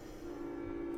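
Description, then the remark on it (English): A train is heard in the background, a steady low droning tone that swells in after a moment and holds evenly, fairly faint, with no voices. “And you might hear the train in the background.”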